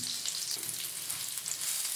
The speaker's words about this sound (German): Also es ist ja nicht wie Fleisch, was wir jetzt durchgaren müssen, sondern es ist ja im Prinzip schon gegart durchs Dämpfen. Ja. Also wir müssen es einfach nur schön warm machen und goldgelb, dass die Kruste schön ist, anbraten.